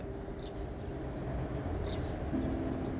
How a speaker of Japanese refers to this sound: ああそうやねで秋の虫の鳴き声ですね、うん、してますね割といい朝ですね